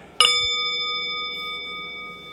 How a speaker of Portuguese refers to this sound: A gente começa fazendo um gachô, um, as mãos impressas em frente ao rosto com o primeiro toque do sino.